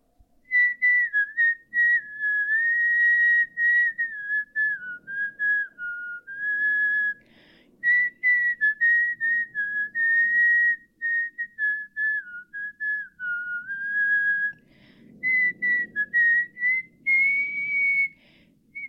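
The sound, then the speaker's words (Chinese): A song melody whistled in a clear, steady tone, phrase after phrase with short breaths between, the pitch rising and falling smoothly over a faint low background murmur. “口哨歌曲，猜猜看是谁的？”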